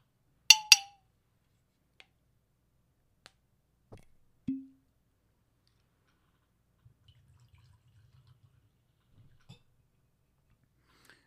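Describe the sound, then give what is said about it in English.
Two sharp glass clinks, a few light taps, then a faint, low trickling burble as Knob Creek smoked maple bourbon is poured into a glass. No one speaks. “I'm going to pour the bourbon first.”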